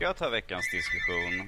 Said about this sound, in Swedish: Jag trodde att eh, telefonen var del av... Eh, nu, nej, det är min telefon som ringer.